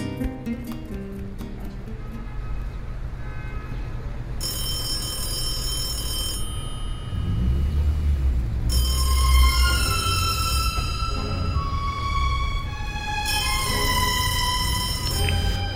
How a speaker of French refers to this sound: Cette cabine sonne Ça me rappelle un film. Euh, je décroche ou pas Bon, je décroche, on verra.